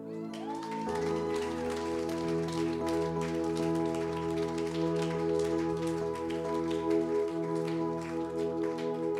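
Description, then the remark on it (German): Sustained applause from a crowd at a worship service, given in praise of God: a dense steady patter of clapping that carries on throughout, over held organ-like chords that swell in at the start and ring underneath. “Wir wollen dir Applaus geben, weil du würdig bist.”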